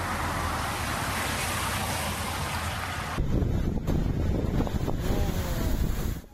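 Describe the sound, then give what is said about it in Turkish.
Strong storm wind roars and buffets the microphone while heavy sea waves crash and churn, a loud continuous rush with gusting surges and no one speaking. Storm-driven sea waves in Istanbul, reaching up to 3 metres in places. “İstanbul'da şiddetli rüzgar nedeniyle denizde oluşan dalgaların boyu yer yer 3 metreyi buldu.”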